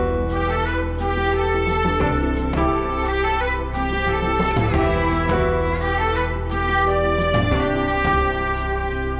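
A sustained horn melody played together with a second instrument, the two sounds blended over a steady low bass, forming a full, layered texture that plays continuously and fairly loudly with no talking.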